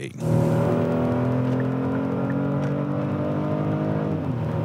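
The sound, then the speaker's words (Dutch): The engine of a Kia Stinger GT, the most expensive Kia in the Netherlands, holds a steady, loud droning roar with layered harmonic tones during a test drive, rising slightly at the start and then sustaining evenly for several seconds, with no clear speech. “En hebben een rijimpressie in de duurste Kia van Nederland.”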